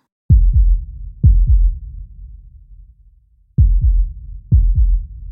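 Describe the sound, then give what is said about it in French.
A woman's heart pounds hard, a heavy, low heartbeat in deep lub-dub pairs, two beats, a brief pause, then two more, with nothing else around them. “Son cœur battait fort, les larmes lui montèrent aux yeux, mais elle les balaya du dos de la main.”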